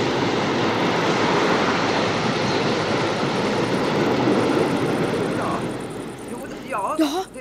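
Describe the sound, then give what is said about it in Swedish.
A heavy freight train rumbles past, a loud, steady roar of rolling wagons that eases off near the end, where a brief higher squeal or voice-like sound emerges. “Just nu har vi störningar här på nätet på grund av bullersamma godståg.”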